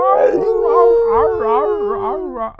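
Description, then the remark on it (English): A person's voice imitates a werewolf howl, a long, loud, sustained wail with a slowly falling pitch and wavering, talk-like inflections, for a couple of seconds. “like a werewolf trying to talk.”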